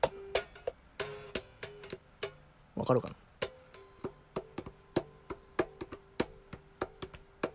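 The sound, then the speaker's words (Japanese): A crisp tapped beat runs throughout, sharp knocks in an uneven, bouncy syncopated pattern, with a brief spoken phrase over it near the start. “結構なんかちょっと跳ねた感じのビートでいきたいですね”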